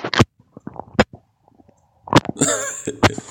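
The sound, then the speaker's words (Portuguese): Several dry, sharp punch impacts land one after another, each a short thud, with a brief busier scuffle of noise near the end between the final hits. “Porque soco tem esse som, né? Não é aquela coisa plástica, né?”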